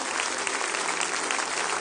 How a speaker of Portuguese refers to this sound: Esse é o povo de Deus que vai andar junto com você. Vamos dar uma salva de palmas para esse povo que está aqui, tá?